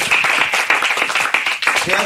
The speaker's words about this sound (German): Applaus für die Araber